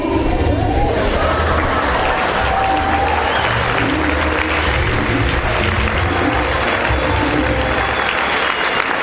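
A large audience at a company event claps loudly and steadily to welcome the company's diamond executive, the dense applause mixed with cheers and shouts throughout, holding a constant level for the whole stretch with no talking over it.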